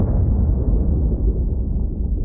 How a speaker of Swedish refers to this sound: Den första explosionen. När den sjunkande Kursk träffar havsbotten kommer den andra smällen.